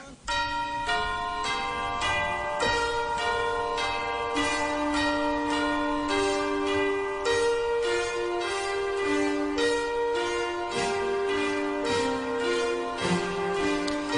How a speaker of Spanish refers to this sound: Y aquí estamos escuchando la banda sonora de Milagro en la calle 34. Esa película es de 1994.